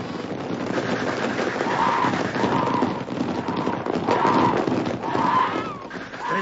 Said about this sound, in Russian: На вездеходах УАЗиков с открытым верхом расстрельщики погнали сайгаков дальше, расстреливая их на ходу из автоматов. В упор без прицела косили, как траву.